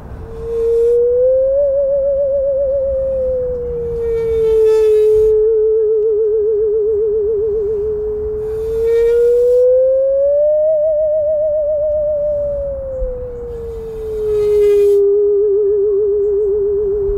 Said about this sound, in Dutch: De zingende zaag. Je moet dat niet mooi vinden hoor, dat geluid. Laat het ons vooral interessant noemen.